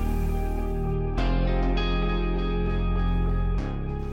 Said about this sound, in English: for those people listening, you will hear the sound of Formula One cars in the background to give us a little bit of atmosphere um, today.